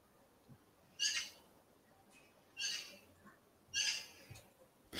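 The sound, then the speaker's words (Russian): A bird calls repeatedly outside the window in summer, three bright, high-pitched bursts spaced about every second and a half, with a fourth starting at the end, over a quiet background hiss. “И такая птица а... вместо сверчка.”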